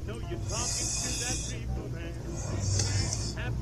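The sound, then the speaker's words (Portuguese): Two drawn-out hissing inhales, like someone sucking in a marijuana toke, each about a second long, with a steady low rumble and faint voice-like murmuring underneath. “O termo Viper significa víbora e é uma alusão ao som da tragada.”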